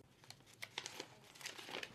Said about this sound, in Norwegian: Arbeidsminister Anniken Huitfeldt rydder kontoret sitt. Papiret sorteres og havner i esker eller i søpla, for snart rykker en ny minister fra de borgerlige inn og tar over hennes kontor.